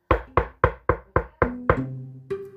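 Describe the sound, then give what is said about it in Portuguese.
A quick series of about eight sharp, evenly spaced knocks on a door, fairly loud, with a faint ringing hum lingering under the last few raps. “De repente, alguém bateu em sua porta.”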